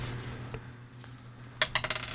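Dice clatter across a hard tabletop in a quick burst of sharp clicks and rattles, fairly loud, settling after about half a second, with a low hum beneath; the roll lands on a five.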